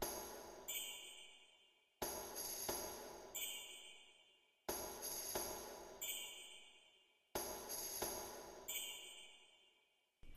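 Jingle bells, played as percussion in a music arrangement, shaken in four bright, shimmering bursts spaced a couple of seconds apart, each ringing out and fading before the next strike, with no voices.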